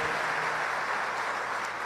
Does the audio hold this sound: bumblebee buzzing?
no